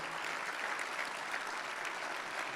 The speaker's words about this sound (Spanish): Cuando dicen amén, denle un aplauso al Señor en mi nombre, por favor.